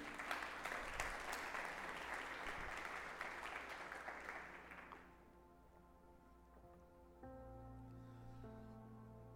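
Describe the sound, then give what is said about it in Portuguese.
An audience applauds the Lord loudly during a sermon for about five seconds, a dense wash of clapping that fades out as sustained organ or keyboard chords continue underneath. “Você pode aplaudir o Senhor por isso?”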